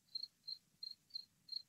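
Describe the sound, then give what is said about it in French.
Cicadas chirp in five short, evenly spaced high-pitched pulses, fairly faint and steady, over a soft low rumble of outdoor background noise. No one speaks. “Vous entendez les, vous, entendez les cigales là”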